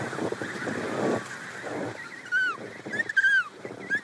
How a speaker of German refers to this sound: Niemand sagt ein Wort. Nur die Pinguine kreischen.